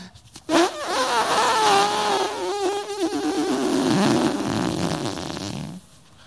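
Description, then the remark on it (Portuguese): A balloon deflating: a loud, squealing rubbery whine that wavers and sputters in pitch for about five seconds before cutting off abruptly, with no one talking over it. “e o seu balão vai.”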